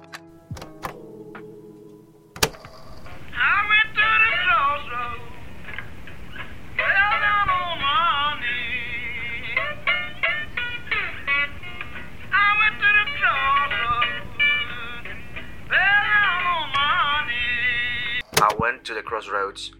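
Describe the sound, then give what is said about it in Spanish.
An old, thin-sounding blues recording plays for about fifteen seconds, a wailing, bending male vocal over guitar, moderately loud and muffled, ending abruptly. “nunca había escuchado una canción de …, que ustedes iban a escuchar a continuación, un pequeño fragmento”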